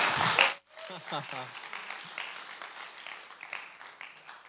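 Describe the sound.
An audience breaks into applause, a dense crackle of many hands clapping that starts loud and settles into a steady, fainter patter, with a few voices briefly audible underneath.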